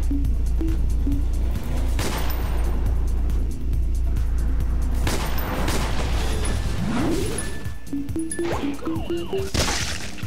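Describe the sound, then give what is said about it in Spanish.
A car in a video game drones loudly and passes by, with a rising whoosh and some clattering impacts, set against a busy game soundscape with tonal beeps. “Nos ponemos en posición cuando va el carro en medio.”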